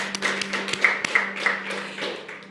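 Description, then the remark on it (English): An audience applauds for the people who decided to follow Jesus, a dense patter of many hands clapping at once, steady, with a low hum running underneath throughout. “Let's give a hand clap to those people who decided to follow Jesus.”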